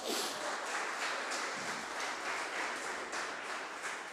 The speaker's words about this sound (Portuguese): Aleluia! Aplauda Jesus, irmãos.